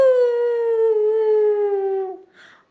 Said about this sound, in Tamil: ஓ அப்படின்னு கத்தி ஊழ விட்டுக்கிட்டே அவங்க வீட்டுக்கிட்ட போயிடுச்சு